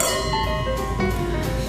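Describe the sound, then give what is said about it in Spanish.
Drinking glasses clink together in a toast, several quick taps each leaving bright ringing tones that overlap and linger. No one speaks. “¡Salud!”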